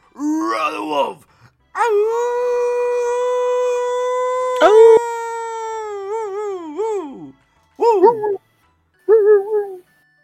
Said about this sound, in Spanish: Oye, hasta parece que estoy aquí con manadas en mi casa, perros al lado, atrás, y, y nomás hay un sonido extraño y toda la jauría ahí.